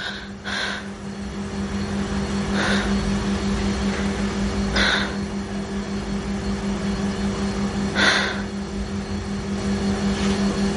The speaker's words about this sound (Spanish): Por la noche está en su casa. Intenta dormir, pero el ruido del nuevo frigorífico se lo impide.